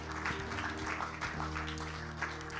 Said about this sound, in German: Komm on, lass uns mal einen Applaus geben, die sich entschieden haben, auch am Livestream. Come on.